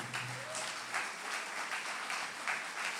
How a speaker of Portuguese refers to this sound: aplauda o Senhor com alegria.